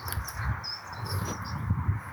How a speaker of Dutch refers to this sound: Oh ja, wat, zo heerlijk is, ik hoor weer van die vogeltjes fluiten. Het is echt een soort lente weer.